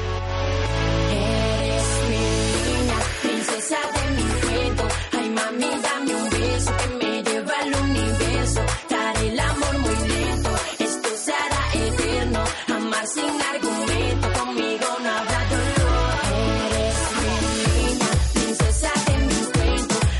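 A loud, steady pop track plays throughout, with a thumping bass line, dense layered instrumentation and a driving beat that carries on without pause for the whole stretch.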